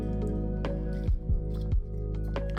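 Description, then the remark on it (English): Someone drinks water, with three quick gulping swallows over a steady low background hum and no talking. “gotta get some water. Hydrate before you dehydrate, guys.”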